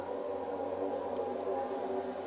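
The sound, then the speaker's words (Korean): A disinfection fogging truck drones past, a steady, buzzing engine-like roar with layered low hums that holds at an even loudness throughout, with no voices. “소방차가 지나가고 있네요. 소독차요.”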